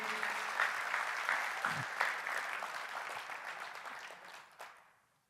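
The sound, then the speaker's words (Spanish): Loud audience applause, a dense steady wash of many hands clapping that holds strong for several seconds before tapering off and fading out near the end. The applause is given for Christ. “Él está aquí, así que dale un aplauso fuerte, fuerte, fuerte.”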